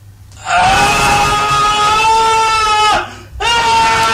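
A loud, strained wailing vocal from a somewhat older song played on a radio show, held as one long sustained cry, breaking off briefly near the end before the screaming resumes.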